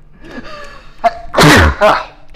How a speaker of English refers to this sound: I mowed today. My my uh, my um, my uh, allergies are terrible. I love sneezing, dude. That makes me feel so powerful.